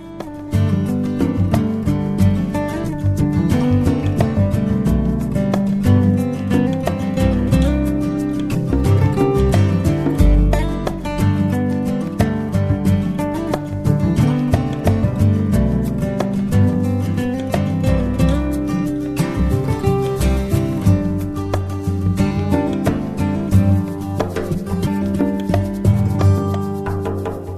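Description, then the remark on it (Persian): A continuous instrumental music interlude plays at steady, fairly loud volume, with rich sustained tones and a busy rhythmic texture throughout, and no one speaking over it. “ما بریم و بر یه نوایی گوش بدیم برگردیم و در ادامه قسمت شیشم میکروفون داغ رو پیش میبریم”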